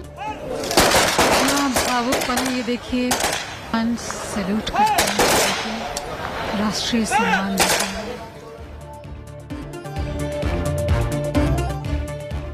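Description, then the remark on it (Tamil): Security forces fire a ceremonial gun salute at a singer's cremation with full state honours. Several sharp rifle volleys crack out at irregular intervals, loud, over a murmur of voices and crowd noise, which carries on after the firing ends. “பாடகி … உடல் முழு அரசு மரியாதையுடன் தகனம் துப்பாக்கி குண்டுகள் முழங்க பாதுகாப்பு படையினர் மரியாதை”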